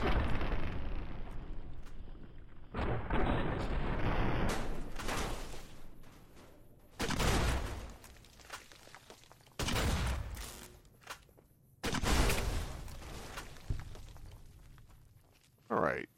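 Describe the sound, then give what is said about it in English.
Video game combat: five big grenade blasts from a weapon called Thump Thump boom one after another at an enemy named Mr. Handy, each with a rumbling decay, mixed with bursts of gunfire and crackling sparks, spaced a few seconds apart. “He took five big grenades from uh, Thump Thump to go down.”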